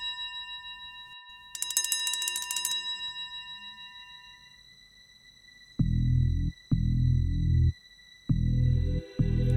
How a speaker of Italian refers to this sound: Ci sveglia il telefono. In piena notte. La zia corre a rispondere, si sente che è preoccupata. Quando suona il telefono di notte è qualcosa di brutto.